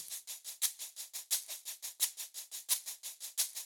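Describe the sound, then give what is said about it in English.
A steady, rapid shaker in a song's backing track rattles in even sixteenth-note pulses, bright and hissy with periodic accented strokes, playing alone at moderate volume with no voices. “Shaker.”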